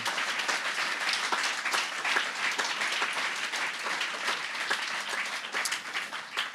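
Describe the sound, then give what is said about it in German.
Sustained audience applause, a dense, steady patter of many hands clapping at an even loudness throughout, with no voices rising above it. “Ich denke, das ist ein Applaus wert, oder?”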